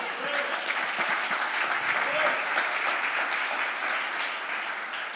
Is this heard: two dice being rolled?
no